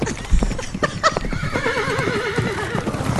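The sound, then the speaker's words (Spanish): A horse being ridden lets out a long, quavering whinny after a few sharp hoof clops, with rough stamping and snorting, fairly loud. “Oh my god, ya van en el caballo.”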